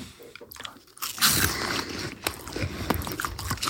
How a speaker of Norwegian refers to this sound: Og siden igjen da vi ikke har kameraer på oss, så, så er dette et ganske håpløst uh, konsept. Så om vi kanskje knasker godt inn i mikkene?